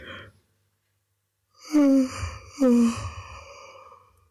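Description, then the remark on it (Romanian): Two long, drawn-out yawns in quick succession, the second following right after the first, each a breathy voiced exhale that slides downward in pitch, fairly loud, with no talking. “Căscatul dublu se cheamă în momentul în care începi să caști și după aia de oboseală că durează căscatul, mai caști odată în timpul căscatului.”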